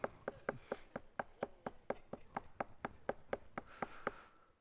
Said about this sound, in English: Peter continued knocking.